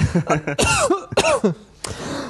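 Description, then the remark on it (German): A series of coughs, several harsh bursts in quick succession with a raspy, throaty edge, ending in one last sharp cough after a brief pause. “Einmal noch bitte aushusten.”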